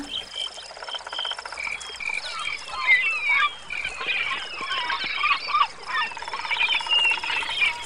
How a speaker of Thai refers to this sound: เสียงนี้เนี่ยก็หมายความว่าเราทั้งหมดกำลังเข้าเขตป่ากันแล้วค่ะ